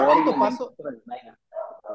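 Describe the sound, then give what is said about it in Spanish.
Several dogs bark at once in a loud, overlapping burst, then break into scattered, shorter barks and yips, set off by a man riding a bicycle past the front of the house. “donde estoy yo pareciera que están todos los perros de la provincia”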